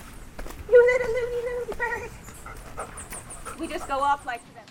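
A female Labrador dog pants, with drawn-out whiny tones and short squeaky bursts mixed into the quick breathing, plus some faint background noise and movement.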